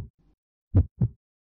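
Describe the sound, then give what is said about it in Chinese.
A pounding heartbeat sound effect: two deep, booming thumps in a quick lub-dub pair, preceded by a fainter low beat, then silence. Heavy bass with no voices. “然后就在那个篮球场上亲了我，就反正心里就觉得很砰砰跳那种感觉。”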